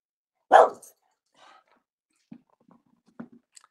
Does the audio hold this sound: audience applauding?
no